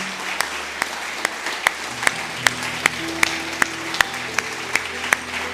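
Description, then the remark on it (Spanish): Applause from a church audience at the close of a service, in steady unison, a group clapping sharply in time at roughly two to three claps per second, with faint sustained low musical tones humming underneath. “Junte sus palmas.”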